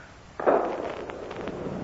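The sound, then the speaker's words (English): A ship blowing up at sea, turning the sea into a ball of fire: one sudden, loud blast that rolls straight into a sustained roar with scattered crackles and pops, and no voices. “And there she goes! The sea's transformed into a ball of fire.”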